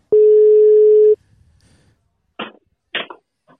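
A single loud, steady ringback tone of a phone call being placed, lasting about a second, then a pause and a few short, muffled bursts of sound.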